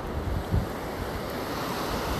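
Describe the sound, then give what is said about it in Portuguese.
Steady wash of ocean surf on a beach, with wind buffeting the microphone and a brief low rumble of a wave surging in; continuous, no voices. “Estou na praia.”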